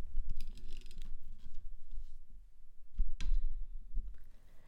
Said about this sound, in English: So I'm gonna pop the pop shield back on again. Two seconds here now.